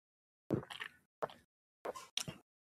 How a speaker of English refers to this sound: all right so give me a second i'm gonna sip this man too much